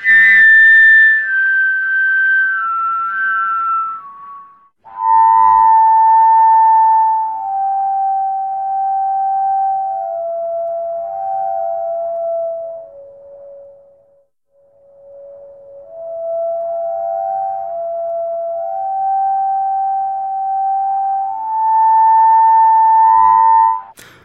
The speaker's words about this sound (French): Il s'agit d'une gaine électrique. Que C'est-à-dire euh. les gaines striées Voilà, les gaines striées grises en général, dans laquelle je souffle.